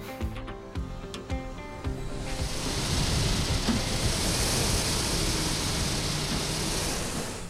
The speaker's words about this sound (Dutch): Dit is het geluid van een skitrainer op het terrein van Helios, waar op dit moment een bootcamp plaatsvindt.